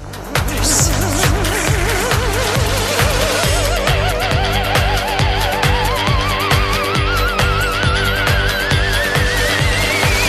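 A loud song plays with a steady, pulsing beat and dense backing, while a warbling, vibrato-laden tone slowly glides upward in pitch across the passage. No one talks over it.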